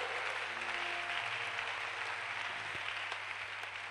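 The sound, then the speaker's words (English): A crowd claps in praise to God steadily throughout, a dense, continuous wash of many hands with no clear beat, fairly loud, with a faint low hum underneath and no voices. “Oh, your hand clap can be better.”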